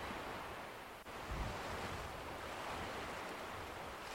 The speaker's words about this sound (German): Achte auf die Geräusche. Du hörst die Wellen.